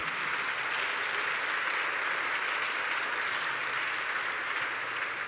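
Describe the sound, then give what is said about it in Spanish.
A crowd claps steadily for about five seconds, a dense, even wash of hand claps that holds at the same strong level throughout, with no voices over it, applauding to give glory to God. “Dale la gloria a Él, dale un aplauso a Él, porque Él es el único que puede hacerlo.”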